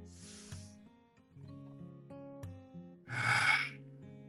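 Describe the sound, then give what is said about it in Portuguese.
Two breathy rushes of air, a softer one at the start and a louder, fuller one later: deep, long inhalations taken during a guided relaxation exercise, over a calm sustained musical backdrop. “E agora numa respiração profunda e longa”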